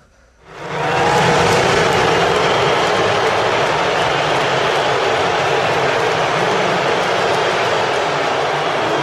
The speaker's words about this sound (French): vous allez entendre les gens applaudir et lorsque vous sentez un changement dans la foule, c'est le moment où Donald Trump apparaît sur les écrans.